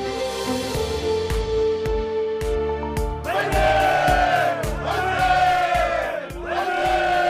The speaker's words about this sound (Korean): 1980년대 중후반 락 음악 애호가들이 환호성을 질렀습니다. 한국에도 마침내 헤비메탈 그룹이 등장했다.